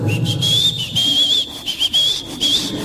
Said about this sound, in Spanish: ¿Quién de ustedes no conoce a alguien que no puede estar en silencio ni siquiera un minuto? Ya, si, si no tiene música, y anda chiflando.